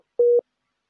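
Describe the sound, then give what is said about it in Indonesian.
A single steady electronic busy tone, a flat mid-pitched beep lasting about a fifth of a second, sounding alone against silence as a phone call fails to connect. “Menghubungkan. Ini kayaknya bukan sinyal dari orang.”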